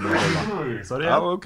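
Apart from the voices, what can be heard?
sneeze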